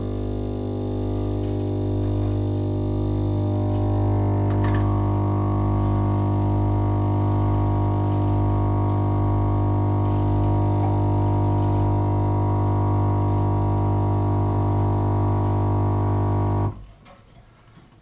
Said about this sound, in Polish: On sobie teraz podgrzewa wodę i przymierza się do pierwszego płukania. Przepłucze nam mm, całą tą instalację po to, aby e, kawa smakowała nam świeżością, a nie jakąś zastałą kawą. On sobie płucze.